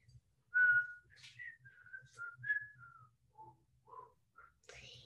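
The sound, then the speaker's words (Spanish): An eight-year-old boy whistles a short orchestral melody of about a dozen clear notes that rise and fall in pitch, fairly loud, with a faint low hum underneath and a breathy note at the end. “Fui a ver Peter and the Wolf y oí esta parte que es...”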